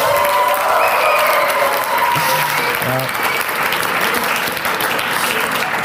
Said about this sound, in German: also der Applaus geht zu 99% an meine Frau, denke ich mal.